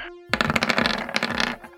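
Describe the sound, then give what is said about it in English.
A quick burst of dice clattering and tumbling across a hard surface as they are rolled to hit for an attack in a game, landing on 18; a dense rattle of clicks lasting about a second, fairly loud over a faint steady hum. “Ooh, 18 on the dice.”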